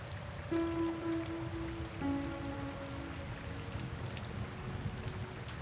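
Steady rain patters on a surface, a dense continuous hiss with a low, tonal hum drifting in briefly near the start; no voices.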